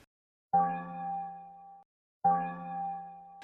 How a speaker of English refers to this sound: let's hear what your um, your phone does when you receive a text message